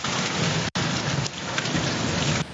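A heavy rainstorm in Blumenau roars steadily, dense rain hissing and pounding with gusty wind and a deep rumbling undertone, briefly cutting out for an instant early on.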